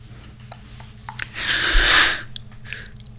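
A close, breathy yawn swells up and fades over under a second, with a few faint clicks and mouth sounds before and after in an otherwise quiet room.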